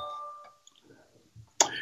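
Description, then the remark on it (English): A telephone rings faintly in the background with a spam call, a steady electronic tone that breaks off after half a second, followed by soft muffled voices and a sudden louder noise at the end. “Sorry for that other phone ringing in the back there.”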